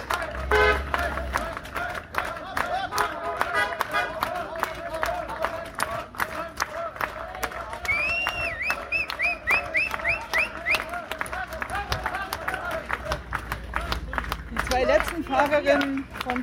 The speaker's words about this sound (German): Hier kommt jetzt der ganze Materialwagentross vorbei und eine letzte Gruppe von vielleicht 20, 25 Fahrerinnen kämpft sich hier noch hoch, bekommt auch den verdienten Applaus, wie sich das für echte Radsportfans gehört.